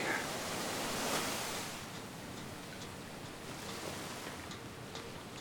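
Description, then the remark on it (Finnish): A steady, broad wash of wind with faint scattered ticks of light drizzle, heard under a giant oak tree by the seashore; the hiss swells slightly early on, then settles into an even, moderate level with no voices. “Ehkä tuulee ja vähän tihkuttaa, mutta puun oksien alla ei kastu.”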